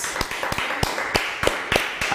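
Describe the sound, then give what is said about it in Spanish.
Hands clap in a quick, uneven patter, sharp claps popping over a softer wash of more clapping. The applause stays fairly steady throughout, with no voices. “Un fuerte aplauso a todas las naciones.”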